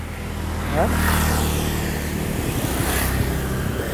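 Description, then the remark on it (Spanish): A heavily loaded motorcycle passes by, its engine droning loudly and steadily with a brief rev near the start, the low rumble filling the whole stretch before easing slightly toward the end. “Espérame, porque está por venir una moto súper requete cargada.”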